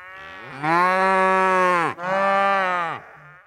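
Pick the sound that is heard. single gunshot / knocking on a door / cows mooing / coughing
cows mooing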